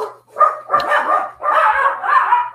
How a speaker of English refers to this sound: yeah, as you hear my dogs going crazy out there.